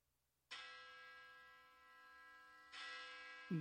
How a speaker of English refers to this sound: Bong. Yes, queen. Two bells.